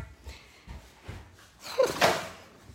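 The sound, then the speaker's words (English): A cupboard door in a laundry bangs shut with a sharp clatter near the end, preceded by a few soft, muffled knocks and shuffles as it is handled. “Okay. Shut that. Oh, bang.”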